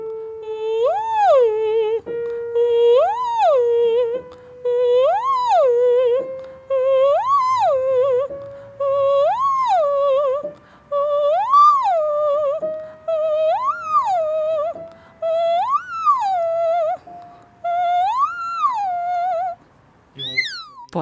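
A lone singing voice of a young aspiring opera singer runs through her daily vocal warm-up exercises: about nine short sung swoops that rise and fall, each repeat stepping slightly higher in pitch, with brief pauses between them.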